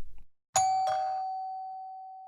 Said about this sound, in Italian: Suona il campanello di casa West.